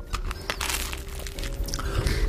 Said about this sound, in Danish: så kan jeg lige, mens øh, vi spiser her